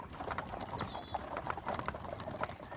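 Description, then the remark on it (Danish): Hooves of a horse pulling a carriage clip-clop in a steady, even rhythm, moderately loud, with a faint background hum and no talking. “Det er da en hestevogn.”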